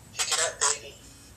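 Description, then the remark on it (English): A phone rings with two short, bright electronic chirps in quick succession for an incoming spam call, fairly loud, over a faint background hum, with no talking. “I've been getting nothing but, uh, spam phone calls coming in here.”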